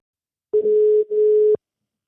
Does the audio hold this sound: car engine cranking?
no